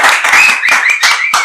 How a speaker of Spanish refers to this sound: Hablando de publicidad, antes de decirte esto, quiero agradecerles, por supuesto, a Solo Marquesas por brindarnos el espacio y todo el apoyo a este proyecto. ¡Aplauso para ellos!